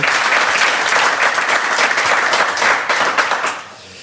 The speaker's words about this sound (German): Er ist viel in sozialen Netzwerken unterwegs und hat gerade angekündigt, auch dafür hat er einen Applaus verdient, bis Ende des Jahres seinen Facebook-Account zu löschen.